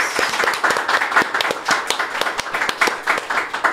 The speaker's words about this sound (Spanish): Eh, y pues gracias a todos y pues aplausos porque nos salió bien. Gracias por acompañarnos.